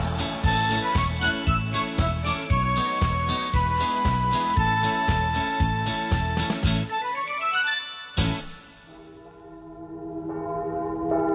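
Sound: church bells ringing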